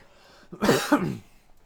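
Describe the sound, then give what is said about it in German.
A single sharp burst that starts like a sneeze and breaks into a cough, loud and noisy with a brief voiced catch, lasting about half a second before quiet returns. “Also wird es jetzt ein Huster oder wird es ein Nieser? Und dann war es am Ende irgendwie Herzlichen beides.”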